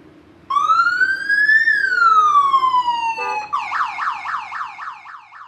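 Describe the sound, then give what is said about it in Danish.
A fire engine siren blares loudly at the Fredensborg fire brigade's 100th anniversary event on Saturday 17 August, first a long rising and falling wail, then switching to a rapid, repeating yelp pattern, with a low steady hum underneath and no talking. “Der er lidt baggrundsstøj på optagelserne, henholdsvis fra regnen, der øsede ned, da arrangementet startede, samt fra de mange brandslukningskøretøjer.”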